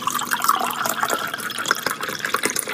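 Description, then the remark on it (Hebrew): A tap runs steadily, water splashing and gurgling at a constant, moderately loud level for a few seconds, with no voices. “אף אחד לא רוצה לפתוח ברז, ובמקום מים טריים שיצא מהם מיץ של איך סך סך סך.”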